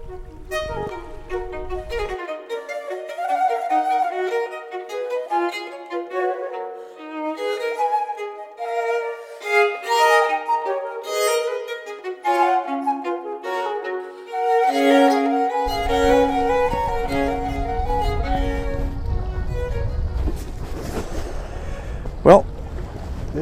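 Wind buffets the microphone outdoors on a cold October day while fly fishing, with a loud, low rumbling roar, briefly at the start and then steadily through the last several seconds, while a voice carries on through the middle.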